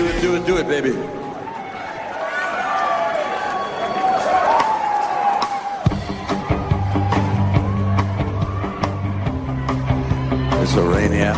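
A rock song plays at steady volume: layered, ringing guitar tones open it, then a deep bass line and a regular drum beat kick in for the rest.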